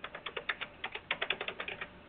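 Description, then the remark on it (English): Quick, steady typing of a phone number on a computer keyboard, a rapid run of clicking keystrokes with short pauses between bursts and no voices. “And I Call Teresa tomorrow, and I'll put our phone number in here.”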